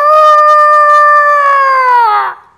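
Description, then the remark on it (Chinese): A rooster crows before daybreak in one long, loud, sustained call with a bright, steady pitch that drops and trails off at the end. No one speaks. “那是什么？是公鸡在打鸣。”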